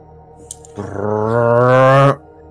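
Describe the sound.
A person vocally imitates elevator doors with a single loud, sustained droning hum lasting just over a second. It rises slightly in pitch and ends in a breathy hiss before cutting off abruptly.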